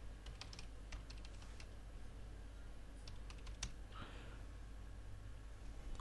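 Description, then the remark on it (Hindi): Quick bursts of keystrokes clatter on a computer keyboard as a person types their name, email ID and website URL into a comment form: irregular clusters of sharp clicks with brief pauses, fairly quiet over a low steady hum, with no voices. “मैं यहाँ पे अपना नाम डाल देता हूँ यहाँ पे अपनी ईमेल आईडी डाल देता हूँ यहाँ पे अपनी वेबसाइट का यू डाल देता हूँ”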